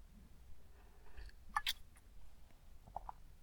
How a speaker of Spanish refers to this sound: Pausa para trago de café.